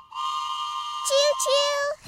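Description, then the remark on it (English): A train whistle blows one long, steady, bright tone, then a lower second tone joins it in a chord for about a second before both stop together. “All aboard the Bible train.”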